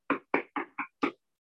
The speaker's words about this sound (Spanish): Y el amor de Dios dice, Jesucristo te va a llamar a tu puerta.